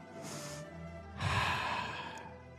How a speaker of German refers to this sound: Einatmen durch Nase, ausatmen durch Mund.